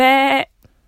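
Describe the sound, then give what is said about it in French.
A person imitates a sheep at the end of a recording, giving one loud, wavering bleat that lasts under half a second and then stops abruptly, followed by near silence. “Alors il y en a qui n'aiment pas du tout, hein, excuse-moi, mais à la fin des enregistrements, généralement, on fait un petit bellement euh, bêlement de mouton.”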